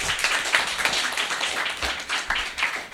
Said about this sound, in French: Celui qui fait le plus de bruit, c'est celui qui sera. ah, ok, d'accord. Bah alors applaudissez ceux qui sont pour.